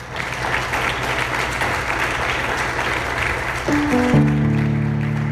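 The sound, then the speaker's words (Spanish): Loud, dense applause from a church audience, given to the Lord, rolls on steadily for several seconds, and near the end sustained keyboard chords rise in underneath the clapping. “Le damos un aplauso al Señor fuerte.”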